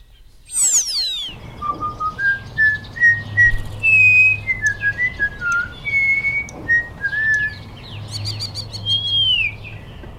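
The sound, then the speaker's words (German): A starling sings a run of clear whistles, gliding notes and short chirps, with rapid sweeping phrases at the start and end and a steady low hum underneath; its last whistle is one it often imitates. “Und witzigerweise, den letzten Pfiff, den macht er immer gerne nach.”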